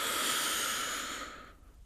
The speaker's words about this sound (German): Und atmen noch einmal tief ein und halten oben.